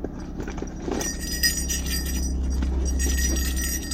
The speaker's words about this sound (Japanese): 我々はあらかじめ熊よけの鈴を札幌から用意しておりましたしかしこのトロッコ王国でたまたますれ違った地元の男性が驚異的な数の鈴をつけて歩いていたのを見てしまったのです